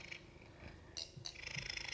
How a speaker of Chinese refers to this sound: 哦，大家有听到我们家猫很大声的呼噜声吗？你是要录那个什么 SMR 什么 ？ASMR，ASMR 就是这个声音。